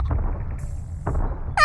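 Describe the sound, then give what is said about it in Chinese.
Heavy, booming footsteps of a giant approaching his garden, with a deep low rumble, two dull thuds about a second apart, before a voice starts at the very end. “是脚步声，看呀，你们看呀，有人来了！”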